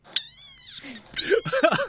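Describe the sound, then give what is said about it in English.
A cane toad lets out a shrill, strained scream, one sustained wail followed by a burst of harsher, wavering cries, loud. “Okay, and if you don't know what that is, that's actually a cane toad screaming”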